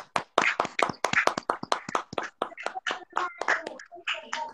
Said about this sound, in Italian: perché non facciamo gli applausi fatti a mano come quelli di una volta? Proviamo, ah, dai. Ecco, dai che ci proviamo.